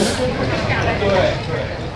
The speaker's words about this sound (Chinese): 然后可以看一下南锣鼓巷四点的声音，四点四十， 游客高峰期。